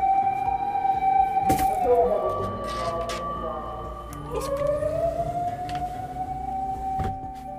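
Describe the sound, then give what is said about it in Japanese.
A fire engine siren wails steadily from outside, its tone dipping and sliding as it passes, fairly prominent over a quiet background with faint traffic rumble beneath. “めっちゃ消防車の音入りましたね”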